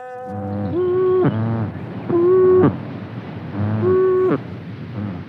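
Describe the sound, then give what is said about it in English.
A malleefowl gives three low, booming calls, each under a second long and evenly spaced, loud, with a faint rushing background and no voices. “Is it a mallee fowl? Yes!”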